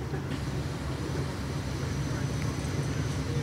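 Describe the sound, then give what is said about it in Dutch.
A steady, low mechanical rumble of a water jet pump being switched on, droning evenly at a constant loudness with no pauses. “Ik ga nou de pomp aanzetten.”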